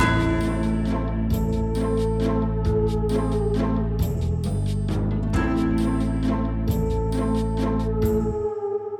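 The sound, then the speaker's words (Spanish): Church bells ring loudly in a dense, continuous peal, with many overlapping strikes and long, humming tones sustaining throughout. No voices are heard. “observando el sonido de las campanas y el movimiento de las campanas”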